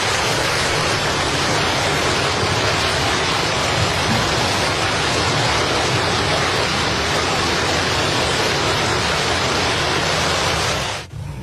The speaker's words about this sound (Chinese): 总书记对两位老模范如此关心和尊重，全场人都十分感动，大家长时间热烈鼓掌。